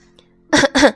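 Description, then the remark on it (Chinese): A man coughs at a small shop, two short, loud, rough bursts in quick succession after a moment of near silence, with a faint low hum underneath. “有人咳嗽了一声，美伊回过头。”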